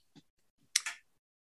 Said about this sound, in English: I'm going to have a sip of some coconut water.